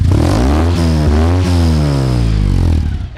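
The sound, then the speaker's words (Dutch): A small two-cylinder engine of a Burton kit car built on a Citroën 2CV chassis revs up loudly through large chrome side exhaust pipes, pitch climbing and falling in a few throttle blips before settling, with no talking. “Laten we nog eens één keer brullen”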